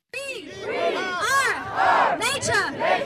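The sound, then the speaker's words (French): A crowd of protesters at a demonstration in Strasbourg over the nature restoration law before the European Parliament, nearly 200 in each of two camps, environmentalists and farmers, chants and shouts together, many voices rising and falling in loud rhythmic bursts for a few seconds. “Dès 8 heures, ils étaient près de 200 manifestants dans chaque camp.”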